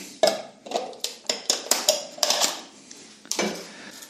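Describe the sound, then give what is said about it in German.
Dry flakes of salted, dried and fermented tuna, finely shaved and briefly toasted in a hot dry pan, are tipped and scraped into a food processor bowl, making a series of crisp, rattling clatters at an uneven rhythm, with no talking. “So, und gebe das jetzt hier auch in die Küchenmaschine.”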